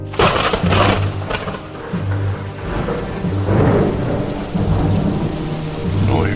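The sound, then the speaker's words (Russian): A thunderstorm in full force: steady heavy rain hisses throughout while deep rumbles of thunder roll and swell repeatedly, loud, with no voices. “гроза.”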